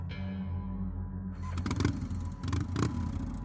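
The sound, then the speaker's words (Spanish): A motorcycle engine is started at about two in the morning, idles with a low, steady rumble, then is revved twice in quick bursts. It is fairly loud, with no voices. “Encendí mi moto y no sin antes prometerle a Claudia que le mandaría un mensaje avisando que llegué bien a casa, me retiré de ahí hasta que me alejé.”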